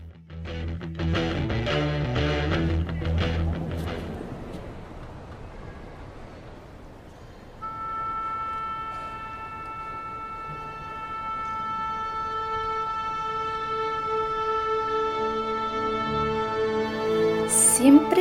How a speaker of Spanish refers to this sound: al comienzo de una presentación orquestal, los músicos deben tocar la misma nota para verificar que estén en el mismo tono y puedan interpretar de manera perfecta las piezas.